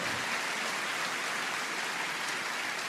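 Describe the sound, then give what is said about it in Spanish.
A crowd applauds steadily in praise of God, a dense, even wash of many hands clapping together for a few seconds, with no voices over it. “¿Cuántos aplauden a ese Dios maravilloso por eso?”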